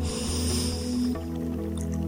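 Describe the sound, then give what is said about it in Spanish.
A long, deep breath drawn in through the nose as a breathing exercise, a steady airy hiss lasting about a second before softening into a quieter, lingering breathy rustle. Fairly loud, with no talking. “Una de ellas es respirando”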